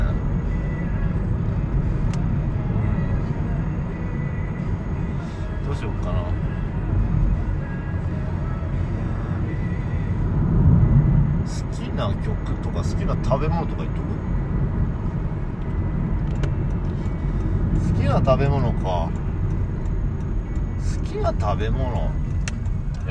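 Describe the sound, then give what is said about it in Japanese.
Steady, deep road rumble from inside a moving car, holding a constant level throughout, with a couple of slight swells and occasional light clicks and rattles over the drone. “うんこれあれだな運転しながらってやりにくい”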